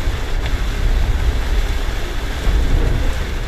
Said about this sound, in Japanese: 今日はねすっごいね雨がね降ってますこの録音にねあの雨の音が入ってるんじゃないかぐらいねあの雨が降っていますよ